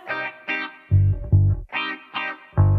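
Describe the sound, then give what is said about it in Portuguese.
Electric guitar and bass trade short phrases back and forth: bright, distorted guitar bursts alternate with deep, punchy bass notes in a steady call-and-response rhythm, with no voices. “O barulho da conversa da guitarra com baixo é.”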